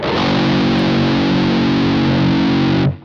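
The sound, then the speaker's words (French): A single low F-sharp played on an eight-string guitar through heavy distortion, a loud, deep, growling note that sustains steadily for about three seconds before being cut off abruptly. No one speaks. “Et quand on en arrive à la guitare 8 cordes, on va arriver sur une note qui est un Fa dièse, et ça donne ça.”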